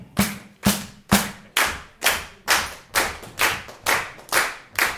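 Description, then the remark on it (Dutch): A crowd claps together in a steady, even rhythm, about ten sharp beats at a brisk tempo, with no voices. The later claps sound fuller and more spread out, as if more people join in. “Zou jullie ook op dit ritme willen klappen voor mij?”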